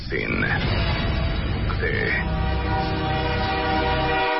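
A train rumbles past with a steady, drawn-out horn blast layered over the clatter, loud and continuous throughout, with a brief higher whistle-like tone early on.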